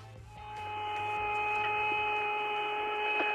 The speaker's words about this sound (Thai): That music even sounds outer spacey, doesn't it? You hear that? That whistling sound? Yeah. Woo!